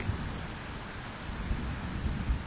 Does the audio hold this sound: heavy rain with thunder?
yes